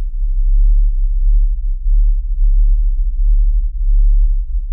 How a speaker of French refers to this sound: eh bien, en réalité, on n'est pas vraiment sûr de ce que c'est, mais ça porte un nom, The Windsor Hum genre. Hmm. Alors d'après moult témoignages à Windsor en Ontario au Canada,